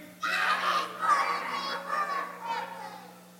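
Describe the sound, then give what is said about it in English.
A crowd of young voices yells together on a count of three as loudly as they can, a sustained, high-pitched roar that swells and surges for about three seconds before fading slightly at the end. “All right, on the count of three, guys, as loud as you can.”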